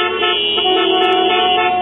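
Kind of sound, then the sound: vehicle, car horns honking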